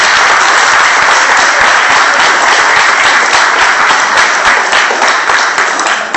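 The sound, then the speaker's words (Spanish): Sustained, loud applause from an audience for the speaker's former history and geography teacher, a dense wash of many hands clapping steadily throughout without any voices standing out, easing slightly at the very end. “para quien me, gustaría pedir un aplauso muy grande”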